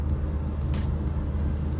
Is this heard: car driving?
yes